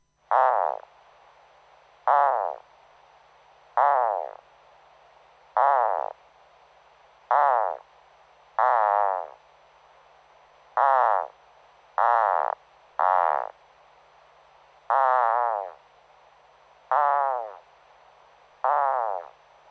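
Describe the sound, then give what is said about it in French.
Insect stridulation made by the rear edge of the wing cases rubbing over a finely striated patch at the tip of the abdomen, slowed down 20 times: about a dozen loud, rasping, croak-like bursts, each roughly a second long, repeating every second or two at a slightly uneven pace, with no voices. “La stridulation de cet insecte se produit au passage du bord postérieur des élytres sur une plage striée de l'extrémité de l'abdomen”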